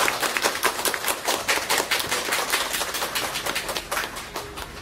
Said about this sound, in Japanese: もう一度拍手の方よろしくお願いします。